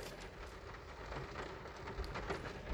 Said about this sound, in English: That's the sound of the roof being hammered on by the rain. Um, it's really, really wet today. Uh, so here we are, sitting in the car, sheltering before the 12 mile race starts um, in about three quarters of an hour.